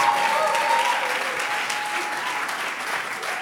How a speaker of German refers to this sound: Komm, lass uns ihr nochmal einen Applaus geben. Richtig gut, dass du da bist.